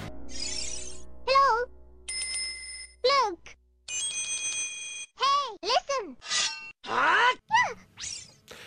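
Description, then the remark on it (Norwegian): The chiming voice effect of Navi, the fairy from the Zelda video games: high, bright calls sweeping up and down, stacked with twinkling bell-like chimes, repeating in quick bursts over several seconds, clear. “Etter det så fikk du Navi.”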